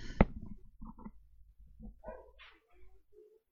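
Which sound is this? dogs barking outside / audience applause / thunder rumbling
dogs barking outside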